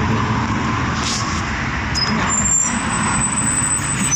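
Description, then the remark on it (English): A large bus idles and rolls in with a steady low engine rumble, a brief sharp hiss of air brakes, then a thin high brake squeal near the end as people wait to board it. No one speaks. “We're getting on the bus now.”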